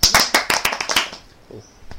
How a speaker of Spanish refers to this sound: Y un aplauso por los que no le gustan los churros.